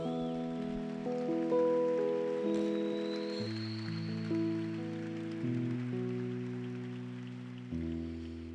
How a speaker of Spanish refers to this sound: Dale un aplauso al Rey.